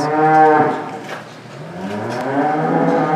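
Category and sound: animal, dairy cows mooing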